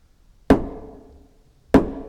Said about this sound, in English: Hark! More knocking.